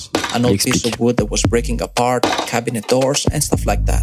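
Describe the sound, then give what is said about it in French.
Pieces of wood knocked together in a loose rhythmic groove, sharp clacks ringing with hollow, pitched resonance, fairly loud and continuous throughout; the original, unprocessed sound. “Donc ça, c'est le son original qu'il a fabriqué avec des morceaux de bois.”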